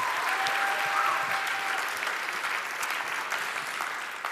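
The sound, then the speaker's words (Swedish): Sustained applause from a sizable audience, a dense steady patter of clapping that holds fairly even for several seconds before easing slightly toward the end. “Ge dem en stor applåd.”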